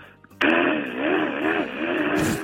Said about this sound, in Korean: 옆집이 인테리어 하는 소리. 아, 듣겠습니다. 옆집에서 네. 인테리어 하는데 드릴로 뚫는 소리. 예, 들어볼게요.